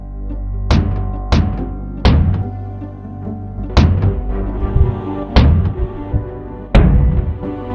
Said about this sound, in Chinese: 可是他突然听到门。被打开了，这是什么声音？